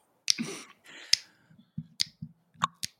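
Five or six sharp hand claps ring out at uneven intervals, each crisp, with some low murmuring and rustling filling the gaps between them.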